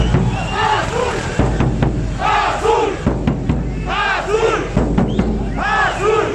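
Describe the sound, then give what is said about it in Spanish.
A loud crowd of football fans chants "Ahí está la bandera" in rising and falling bursts, backed by steady thumping tambora drum beats and a band, the voices swelling in repeated waves throughout, as La Máquina's truck arrives in the distance. “A lo lejos, arribaba el camión de la máquina y la tambora y los cánticos no podían faltar.”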